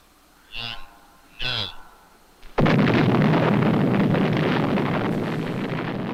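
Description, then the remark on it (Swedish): Two brief whooshing swells are followed by a sudden, loud explosive blast that grows into a sustained, roaring rumble lasting several seconds: the Tunguska asteroid detonating in the air above the Siberian taiga. “Den detonerade i luften ovanför den sibiriska taigan, precis som Little Boy detonerade i luften ovanför Hiroshima.”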